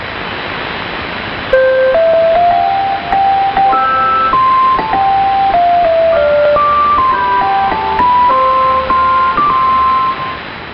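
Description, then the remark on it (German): The Irish public broadcaster's interval signal, aired early in the morning around 6:30 German time: a simple, bright melody of clean chime-like notes played steadily with no voices, sounding slightly muffled and narrow, as if heard over a broadcast, with faint hiss beneath. “Übrigens hat der irische Rundfunk auch ein Pausenzeichen.”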